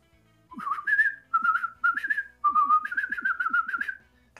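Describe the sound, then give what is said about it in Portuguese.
A person whistles a signal call: four sliding, warbling bursts, the last one longest, fairly loud and clear, with faint low thumps underneath and no talking. “Daquele assovio que só ela conhece, né?”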